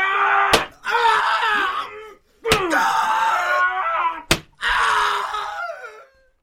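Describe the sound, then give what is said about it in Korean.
Three sharp blows, each a loud crack like a paddle striking, as a prisoner accused of stealing grain is beaten under interrogation until he names Im Kkeokjeong, answered at once by a man's long, wavering screams of pain, with brief gaps between the cries. “저놈의 입에서 임꺽정이라는 소리가 나올 때까지 작을 쳐라!”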